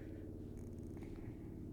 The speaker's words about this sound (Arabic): ده الهليكوبتر ده بيطمن عليك بس بلاش.